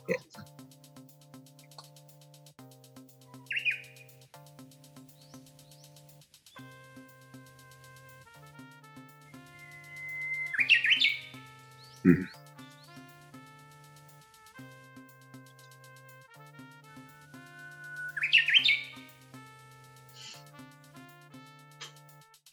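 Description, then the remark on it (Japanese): A Japanese bush warbler sings twice in a regional dialect of its song, each song building to a bright, rapid flourish with a slightly different ending note and an extra bit at the end, over a steady low droning background and a brief voice. “で、このウグイスはね、ちょっと面白いのが、あの、地域によって鳴き声がちょっとずつ違うっていうのがあるんですよね。”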